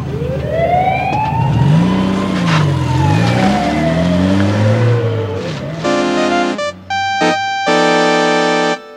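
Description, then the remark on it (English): An ambulance siren wails up and down over a revving engine on a highway after a crash, then gives way to several loud, blaring horn-like blasts near the end. No one speaks. “Now let the ambulance through.”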